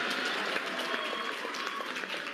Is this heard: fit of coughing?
no